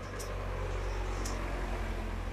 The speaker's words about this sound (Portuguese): Caminhão.